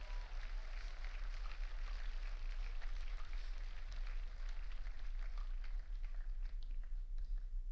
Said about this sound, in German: Können wir mal allen einen Applaus geben, die heute den ganzen Tag am Dienen sind? Die Kaffee machen, die Essen machen, come on.